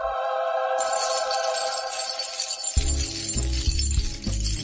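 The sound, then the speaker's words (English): A bright, continuous shower of gold coins, golden dragons, clinking and jingling over a sustained musical drone, with heavy low thumps joining partway through; loud, no talking. “That's the sound of a thousand golden dragons falling from the sky as we move into Game of Owns, the advertising section.”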